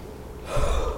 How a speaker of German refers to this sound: Atmet ein und atmet durch den Mund nach unten aus.